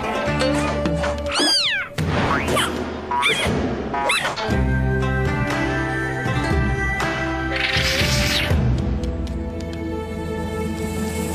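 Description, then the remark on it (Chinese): A kitten meows about four times in quick succession as the kittens take their turn to show their skills, the high, bending cries rising and falling over steady background music with a busy, bright passage later on. “小猫咪们，好棒的猫咪！”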